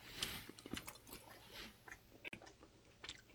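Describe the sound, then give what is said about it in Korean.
Soft, steady chewing of rice, a run of moist, irregular mouth sounds with faint smacks and crunches repeating over a few seconds, with no talking. “아니, 밥만 먹는데도 이렇게 맛있네.”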